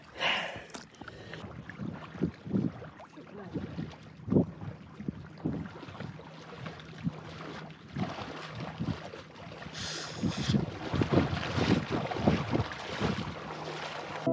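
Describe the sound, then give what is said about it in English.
Cold wind blows steadily by open water, a continuous breathy rush broken by irregular low buffeting gusts that thump against the microphone throughout, with no voices. “Oh, we miscalculated the wind direction and it's really cold.”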